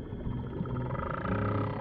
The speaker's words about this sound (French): Avec les oiseaux, la baleine est le seul animal qui chante véritablement. Si on ne parle pas de cris ou de hurlements, c'est que la baleine émet des mélodies qui se répètent à intervalles réguliers, un peu comme des refrains dans une chanson.